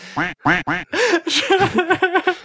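A duck quacks loudly: three drawn-out nasal quacks, then a quick, rhythmic run of shorter quacks. No one speaks.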